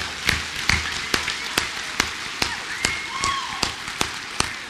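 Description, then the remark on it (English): Steady, evenly paced clapping from an audience welcoming college students back, about a dozen sharp claps in a row, with a faint rumble of background noise underneath and no voices. “Let's give them a hand. Let's welcome them back.”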